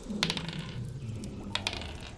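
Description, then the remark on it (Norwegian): Dice rolled for an attack roll with advantage for a knife throw in a role-playing game: a quick cluster of sharp, bright clicks and clatters on a hard surface, then a brief pause and a second short burst of rattling taps, fairly quiet overall. “OK, gi meg et attack roll med advantage.”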